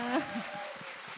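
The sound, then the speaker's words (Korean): Audience applause fills the short clip with a steady, dense patter of clapping, while a voice briefly exclaims over it at the start. “일단 그거 박수 한 번 좀 주세요.”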